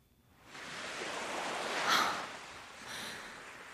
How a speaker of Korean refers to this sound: 바닷가가 멀지 않은 곳에 있는 집이라 은은하게 파도 소리가 들려왔습니다.